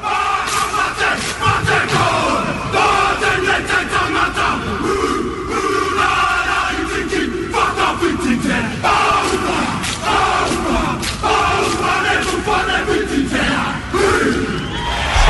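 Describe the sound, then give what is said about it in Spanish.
A group of Māori men and men of British descent loudly chant a Maori haka in unison, with rhythmic shouted phrases and sharp percussive stamps or slaps landing at a steady pace throughout. “fijaros cómo se oye el jaca aquí de fondo que está poniendo.”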